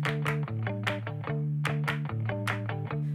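An upbeat indie pop song plays at steady volume, with bright, strummed guitar chords over a bouncing bassline and crisp drum hits keeping a quick, even rhythm.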